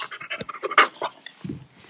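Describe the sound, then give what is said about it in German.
A dog named Auri pants rapidly in a steady stream of short, breathy huffs, with a brief sharper rustle midway and a low soft thump near the end. No one speaks. “Yo Leute, mein Hund öffnet heute wieder eine Robux.”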